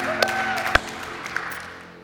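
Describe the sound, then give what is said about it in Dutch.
An audience applauds the band at a church gathering in a steady, dense patter, with a few sharper individual claps standing out before the clapping gradually fades. A low sustained tone hums underneath. “Geef de band ook een applaus.”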